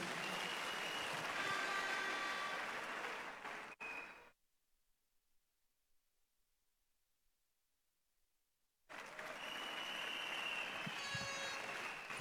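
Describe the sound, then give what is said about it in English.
A crowd claps loudly for Jesus in a dense, steady wash of applause for about four seconds, then falls abruptly silent before the clapping surges back just as strong to the end. “Well, if that hand clap is for Jesus, you can make it bigger.”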